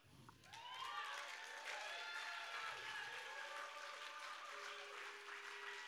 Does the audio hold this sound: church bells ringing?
no